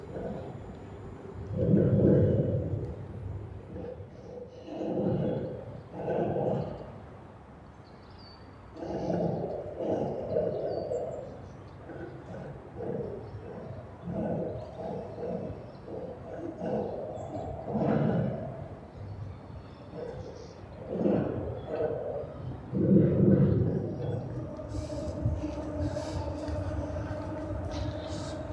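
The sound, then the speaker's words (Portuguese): A deep, continuous rumble of traffic overhead, heard from a boat passing under the 25 de Abril Bridge in Lisbon, rattling and surging in waves like a train rolling across a bridge, with a steady humming drone rising near the end. “É de tal maneira que quando se chega de barco a Lisboa é um dos sons que se espera ouvir é o som de passar por baixo da ponte como sinal que chegámos a casa.”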